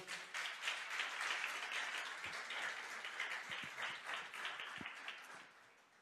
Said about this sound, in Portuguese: Você pode aplaudir o Senhor?